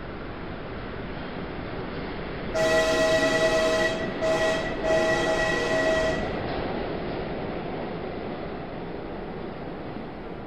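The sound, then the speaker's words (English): A train pulling away from a station rumbles steadily while a loud whistle sounds for several seconds, breaking off briefly twice before stopping, then the rolling noise carries on, gradually easing off. “I stood there watching the red light of his train disappear.”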